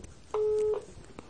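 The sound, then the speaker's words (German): A single steady telephone ringback tone sounds once during a call that goes unanswered, a clean electronic beep lasting under half a second, clear, then fades back to faint background noise. “versuche ich gerade nochmal Cornelis anzurufen, aber irgendwie kriege ich ein Freizeichen und er geht dann nicht wieder ran”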